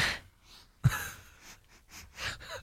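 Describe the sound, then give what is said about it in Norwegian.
Breathy sniffing and exhaling as a person smells food on a saucer that smells of vanilla, with a sharp puff of air partway through followed by several softer inhales and breaths, no talking. “Nå har jeg sikkert pustet det vekk, eller blåst det vekk.”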